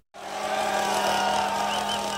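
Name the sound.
chainsaw engine revving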